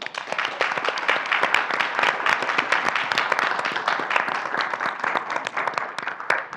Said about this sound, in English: every single person who took part and engaged in very important labor to bring us together in this space deserves our applause. So please clap for them.